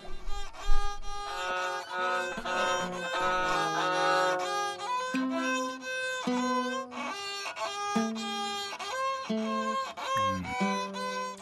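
Two instruments in the video game The Sims 4 play an awkward, clashing duet of overlapping sustained notes with uneven, stop-start timing, sounding like clumsy game music. It's moderately loud and steady throughout, with no voices.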